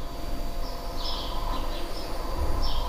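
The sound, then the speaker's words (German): Faint bird chirps come in through open windows, a few short high calls scattered over a steady low background hum. “hört ihr ein bisschen die Vögel zwitschern mal wieder.”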